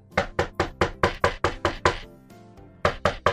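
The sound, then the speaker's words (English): Loud knocking on a door by someone asking to be let in: a quick run of about eight evenly spaced raps, a short pause, then two more knocks. No voices. “Oh, are you gonna finally let me in? I've been out for two hours. Don't open the door, don't open the door.”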